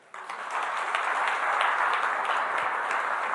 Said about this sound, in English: Right, well, even before I read the scriptures, let's just give our regular welcome team a round of applause, can we?